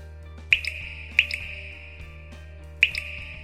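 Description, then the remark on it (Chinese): Water dripping in three clear, bright plinks with a short ringing tone, the first two close together and the third after a longer pause, over a quiet low hum. “那么三年一直在滴水，你看到的将会是一片湖。”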